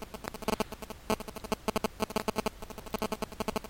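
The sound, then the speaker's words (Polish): Nokia mobile phone radio interference, indoors, while the phone checks network availability: a quiet, stuttering buzz of rapid electronic pulses in irregular bursts, heard alone with no one speaking. “pojawiają się poważniejsze zakłóconka.”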